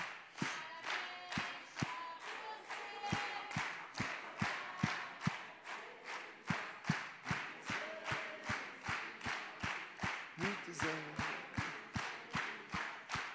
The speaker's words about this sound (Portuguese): E por isso eu queria pedir que você se levantasse e celebrasse o Senhor com as suas palmas. já com as palmas, vai pegando o ritmo e vamos cantar parabéns, só que sem ninguém do louvor.